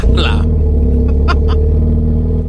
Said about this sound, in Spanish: Oye, qué bonito. Qué bonito se oye tu carro. Me gusta cómo se oye el motor así.